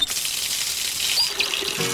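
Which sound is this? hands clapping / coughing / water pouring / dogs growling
water pouring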